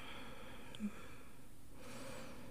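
A slow, soft exhale of breath during a guided relaxation breathing exercise, a quiet steady airy hiss that shifts slightly brighter toward the end, heard alone without any talking.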